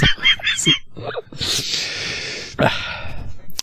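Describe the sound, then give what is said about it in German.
A few quick, sharp inhales build up to a loud sneeze that bursts out in a long breathy hiss, followed by another short breath. No one speaks. “Ja, ich muss niesen.”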